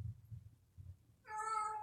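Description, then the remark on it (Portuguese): A single clear cat meow rises out of a quiet low rumble near the end and holds for well over half a second, bright and drawn out. “Vou pegar o gato rapidão.”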